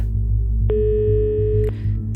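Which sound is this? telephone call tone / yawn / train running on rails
telephone call tone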